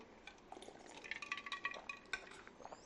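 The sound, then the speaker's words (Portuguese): Ice cubes clink and rattle against a glass of drink in quick, irregular taps, fairly quiet, with faint liquid movement as someone takes a sip; no one speaks. “uma bebida maravilhosa com gelo, um brinde à vida, que a gente manda uma energia boa aí para vocês que estão escutando aí também.”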